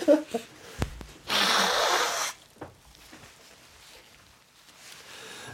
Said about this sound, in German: Ich muss mich mal kurz entschuldigen, ich muss meine Nase putzen wieder.